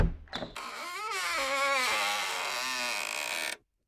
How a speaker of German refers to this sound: Das, oh, das war die Eingangstür zum Labyrinth. Uah, jetzt sind wir drin.